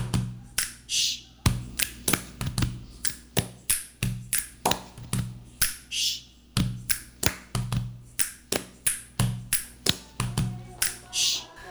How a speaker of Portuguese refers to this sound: Agora que a gente já usou o som dos pés, do peito, do estalo, da palma, perna,